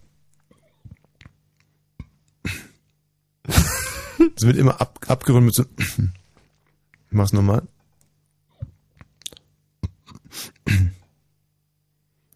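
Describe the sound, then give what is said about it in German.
A few short, deliberate belch-like bursts, fairly loud, repeated in a demonstrative way, with a person speaking briefly between them. “das ist auch noch aufstoßen”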